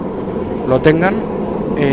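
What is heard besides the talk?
train interior rumble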